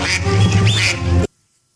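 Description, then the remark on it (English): A single drawn-out, nasal quack made by a person imitating a duck for the Oregon Ducks football team, loud, lasting just over a second before cutting off into silence. “They're going to take on our very own Pac-12's Oregon Ducks.”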